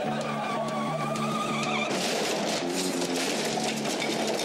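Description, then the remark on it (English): A car revs hard and its tyres squeal and skid in long, shifting screeches, loud, with engine roar underneath throughout. “Hi, I'm Alan Partridge, and I drive a car, but not like this.”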